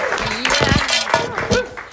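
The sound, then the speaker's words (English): A small audience claps for a helper who held up items, a brief, steady burst of applause, the sharp slaps overlapping at moderate loudness while voices call out and chatter underneath. “Let's give him a clap.”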